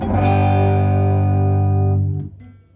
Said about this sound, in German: Jetzt ist das kaputt. Dieses Delay ist übrigens von Artec, das ist manchmal, wenn man da falsch draufdrückt, dann geht's aus.